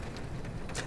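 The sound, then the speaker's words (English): Steady, dense rainfall from a storm hisses continuously at an even volume, a constant wash of drops with no voices over it. “You know, some people like storms.”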